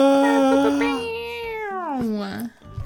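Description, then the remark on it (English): A voice imitates an air horn with one loud, sustained, buzzy tone lasting over two seconds, wavering downward then sliding back up before cutting off abruptly. “That was like a like an air horn.”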